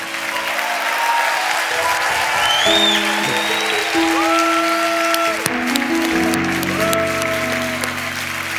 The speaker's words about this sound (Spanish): Aleluya. Dele un aplauso fuerte a Dios. Vamos, los buscadores de Dios. De un grito de júbilo.